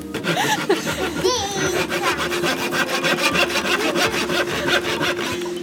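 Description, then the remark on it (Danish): A hand saw cuts through a wooden board in quick, steady back-and-forth strokes, loud, the rasping rhythm continuing throughout with faint background voices. “Så for eksempel kunne det være godt, hvis, der, hvis man er sammen to og to, og så er der en, der sidder her, ikke? Og holder, og holder godt fast i brættet, og den anden står og saver, og så bytter man, når man bliver træt.”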